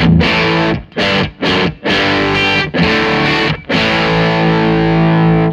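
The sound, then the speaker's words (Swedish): A loud Stratocaster electric guitar through an overdrive pedal hits several short, choppy chord stabs with brief gaps, then lets a final gritty chord ring out and sustain. No one speaks. “Och sen så Baby Pink med Stratta.”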